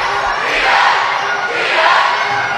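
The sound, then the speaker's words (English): A loud student yell section for Huntington chants and yells in a packed gym at a basketball game, the crowd noise swelling in two rhythmic surges, dense, with no clear talk above it. “yell section here for, for, for Huntington. It's loud. It's intense, man.”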